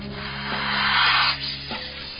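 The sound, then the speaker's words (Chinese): A voice imitates a snake with a long, breathy hiss that swells louder, then drops off and trails away, over a steady low tonal drone. “但是你至少能像我这样嘶鸣吧？”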